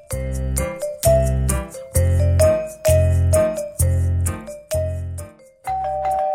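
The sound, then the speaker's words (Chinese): A home doorbell chimes repeatedly in a steady ding-dong pattern, bright tonal strikes each followed by a lower ringing tone, loud and with no voices over it. “门铃声响了起来，娃娃从房间出来，跑去开门。”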